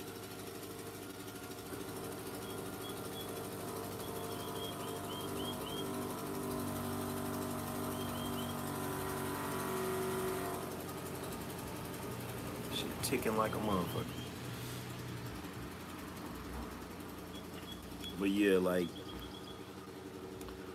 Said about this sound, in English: Then on top of that, damn, bro, you need to get your car fixed.